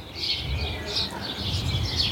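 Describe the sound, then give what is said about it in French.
A male house sparrow, perched on its branch in spring during the nesting season, chirps again and again in short, steady bursts, moderately loud over a low background rumble. “Donc là, on est sur le moineau de Paris, hein. c'est chip, chip, chip, chip répété sans arrêt.”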